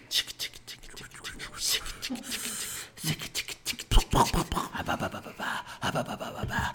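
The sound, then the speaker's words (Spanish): Scratchy clicks and rubbing as a dirty fingernail stirs Miguelito chili powder and salt into a drink for an ASMR recording, in irregular bursts, with soft breathy voices and murmurs mixed in. “Con la uña sucia también le revolvemos.”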